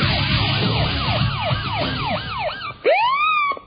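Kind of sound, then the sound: vehicle, police siren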